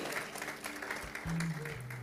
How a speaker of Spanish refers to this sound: Un aplauso a Silvia, que estamos contentos que estés de vuelta aquí con nosotros